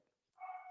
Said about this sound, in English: I don't know if you guys can hear Oscar barking. The dude is just always yapping away. It's one of the one of the downsides of the breed, but uh, we love him. But he's a real he yaks away quite a bit.